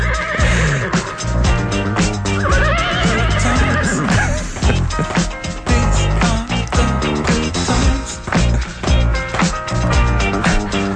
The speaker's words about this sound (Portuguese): é um cavalo, é Gabriel o Relinchador